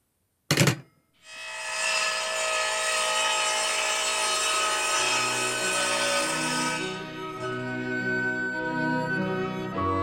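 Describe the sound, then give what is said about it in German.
A circular saw bites into wood with a loud, steady whining roar for several seconds, preceded by a brief sharp knock, then its pitch drops lower as the cut finishes. “Ich kann dich nicht verstehen, die Kreissäge.”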